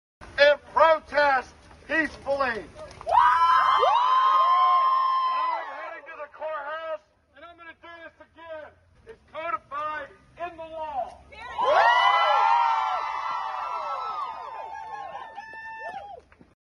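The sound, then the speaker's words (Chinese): A protest crowd cheers in support as speakers talk about how to resist, with rhythmic shouting giving way to two loud, sustained swells of high-pitched whoops and yells, separated by a stretch of scattered calls. “讲到我们应该怎样去反抗的时候，大家都会用欢呼声去表达支持。”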